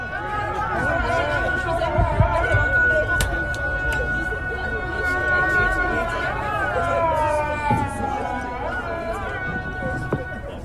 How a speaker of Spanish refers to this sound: Y este que tenemos es el llamado de Santa Sofía. Van a distinguir porque las bocinas de Mezquita Azul es mejor que la bocina de Santa Sofía.